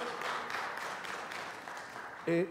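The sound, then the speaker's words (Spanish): A church audience claps steadily to welcome a family visiting for the first time, a dense, sustained wash of applause, with a brief tonal note or voice rising near the end. “Eh, nuestra iglesia le recibe eh, bendiciéndole con un fuerte aplauso a nuestro Dios.”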